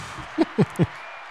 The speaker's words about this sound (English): We applaud you all.